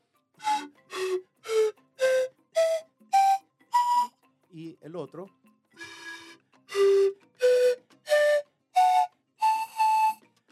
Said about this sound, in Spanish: yo tengo acá, este, en mis manos derecha tengo un siku y en mi mano izquierda el otro. Uno sonaría así.